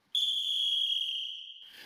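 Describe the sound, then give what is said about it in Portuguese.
A single long, shrill referee's whistle blast starts abruptly and holds steady for about a second and a half, loud, then cuts off. No one speaks. “Apito juiz e tá valendo”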